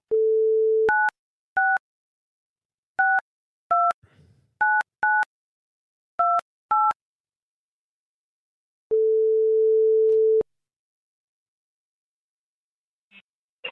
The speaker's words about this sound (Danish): Okay, så ringer vi til ham.